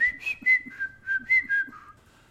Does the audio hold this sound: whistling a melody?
yes